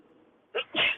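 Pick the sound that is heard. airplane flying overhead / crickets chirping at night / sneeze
sneeze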